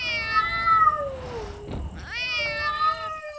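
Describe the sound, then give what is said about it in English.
Two drawn-out meows from feral cats on an island at night, one falling in pitch and a second rising then sliding down, with a brief noisy rustle between them, clear with no talking. “cats, feral cats. The island was overrun with them.”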